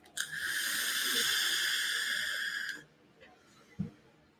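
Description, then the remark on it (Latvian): A vape device is puffed in one steady inhale lasting about two and a half seconds, a loud airy hiss with a thin whistling tone. A soft bump follows shortly after. “Veipot var, bauda, garšas bauda nokritās par minus 50%, bet veipot var.”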